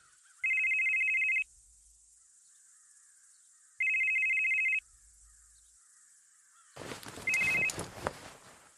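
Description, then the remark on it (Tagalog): A cellphone rings in two loud, steady electronic bursts about a second long, separated by a pause, then a noisy clatter begins with a brief third ring inside it. “Hindi pa halos nakakalimang buwan si Brando sa kulungan nang makatanggap ng tawag si Jong sa cellphone.”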